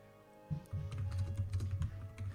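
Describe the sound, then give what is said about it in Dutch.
Rapid, uneven clicking of computer keyboard keys as two people type, fairly quiet, over a steady low hum with no one talking. “ik hoor nog twee mensen tippen.”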